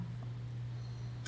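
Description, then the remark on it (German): Balu, a dog, smacks its lips once near the end, a short wet click over a steady low electrical hum in a quiet office. “ja, wir sind nämlich auch nicht in unserem normalen Setting, sondern gerade in meinem Büro, das extrem hellhörig ist, weil ich höre die Straße und Balus schmatzen.”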